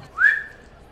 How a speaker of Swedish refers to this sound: ser vi vem det är som visslar. Var kommer visslingen ifrån? Utanför gränden eller innanför? Det kommer ifrån gränden. Precis liksom i ingången till gränden.